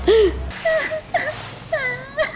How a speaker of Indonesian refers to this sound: Ada suara nangis. Guys, bantu gue. Gue takut.